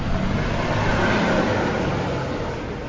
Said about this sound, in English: and we're entering an area now where there's a massive tractor. So I'm glad we've got our yellow high-vis jackets on.